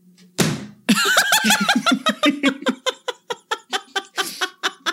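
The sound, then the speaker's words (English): A heavy copy of Neil Price's book Children of Ash and Elm: A History of the Vikings slams onto a desk with one loud thud, and people immediately burst into sustained, rhythmic laughter that gradually trails off. “Here's the noise of that book hitting this desk.”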